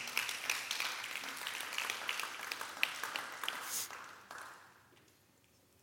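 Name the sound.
audience clapping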